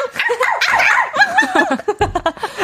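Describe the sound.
A voice imitates an excited puppy while singing a song, yipping and whining in quick, bouncy pitch swoops, ending in a burst of choppy, laughter-like yelps.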